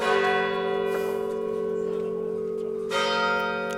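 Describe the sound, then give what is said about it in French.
A church bell strikes the hour at three o'clock, tolling slowly with long humming resonance between the loud, clanging strokes, ringing out alone without any voices. “On va voir combien de temps elles sonnent. On va connaître l'heure.”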